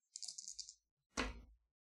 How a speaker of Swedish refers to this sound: Då kommer du få slå tre tärningar. Du kommer få ett högmod efter slaget, så du slår utan modifikation. Eller med, med ja, tre tärningar mm. bara.